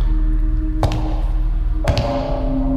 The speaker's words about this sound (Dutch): Creepy, hè? Dit is het geluid van een schoen op de vloer.